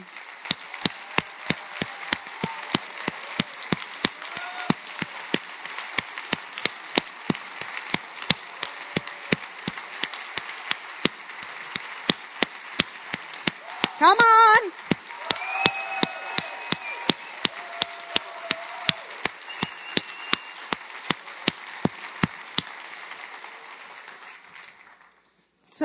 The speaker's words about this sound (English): And it's in that I want you guys to give the women of glad tidings the biggest round of applause you ever have in this room.